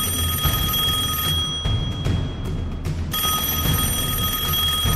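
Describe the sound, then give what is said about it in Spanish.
A loud, steady police telephone bell rings continuously, cuts out for roughly two seconds while low rumbling noise carries on, then resumes ringing just as insistently until the end. “El espanto de los vecinos no tardó en repicar en los teléfonos de la policía.”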